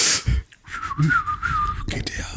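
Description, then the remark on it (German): A single sustained referee's whistle blast, about a second long, wavers slightly in pitch at moderate loudness, surrounded by soft breathy room noise and brief clicks. “Oh, ah, ich glaube, ich glaube hier, ist, hier ist ein FIFA-Schiedsrichter irgendwo im Raum, wenn ich das richtig gehört habe.”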